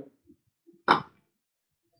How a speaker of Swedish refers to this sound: Han öppnar en öl